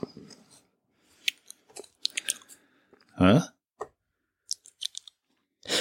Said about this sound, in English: What is that? Is that a Mentos?